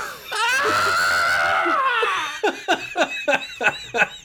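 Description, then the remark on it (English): A voice imitates a sentient worm on the end of a fishing line screaming in sheer terror as it is cast through the air: a long, high, wavering shriek that fades into a run of quick, breathy, panicked yelps and squeaks, loud. “On the end of the line, a sentient worm screamed in sheer terror as it flew through the air faster than any of his ancestors could ever dream.”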